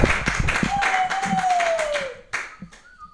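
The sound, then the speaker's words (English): A group claps rapidly and unevenly for about two seconds while a steady whistle-like tone slides slowly downward, then the applause stops abruptly, leaving a couple of brief sounds and a faint high tone. “Everybody clap wildly for”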